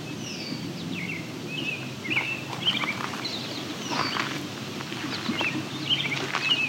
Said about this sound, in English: Now there's goldfinches here too. They're famously not insect. In fact, they're famously not insectivores, more or less vegetarians. So they're here for something else.